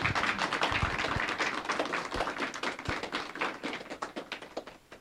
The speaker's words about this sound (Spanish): Amén y amén. un fuerte aplauso a Dios.